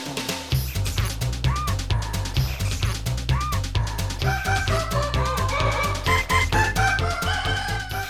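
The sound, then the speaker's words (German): A rooster crows repeatedly amid a busy farmyard clamor of clucking and cawing birds, with a steady low rumble underneath and no talking. “Wie man hört, hat der Hahn die Mäuse wieder vor den Wagen gespannt und sich vorne drauf gesetzt.”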